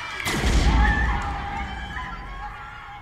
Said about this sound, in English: It was just a warning shot, just enough to disperse the crowd.